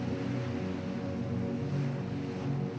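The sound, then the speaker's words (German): Steady rushing surf from sea waves on a sandy beach on the coast of Normandy in northern France, by the border with Brittany, a continuous wash of noise with a low rumble underneath and no distinct individual breakers. No voices are heard. “Wir stehen so nah am Meer, dass die Luft, die du einatmest, schon salzige Tröpfchen beinhaltet.”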